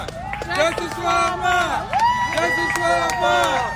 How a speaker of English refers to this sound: we hear when somebody comes out of the courthouse that is in support of Ahmaud Arbery for justice for Ahmaud, you will hear the chant going. Justice for Ahmaud.